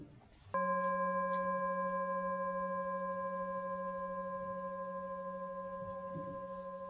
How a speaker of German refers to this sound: Damit du ein klares Objekt hast, werde ich jetzt ein paar Mal die Schale schlagen.